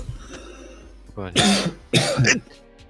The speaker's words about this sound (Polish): Bo co, kaszlnąłem?